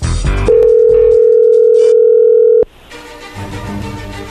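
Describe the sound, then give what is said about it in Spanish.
A telephone ringback tone of an outgoing call plays as one steady, mid-pitched electronic beep lasting about two seconds, then cuts off abruptly into a softer wash of hiss and background noise. “Le va a llamar el lobo, ya entró ahí la llamada, no haga ruido.”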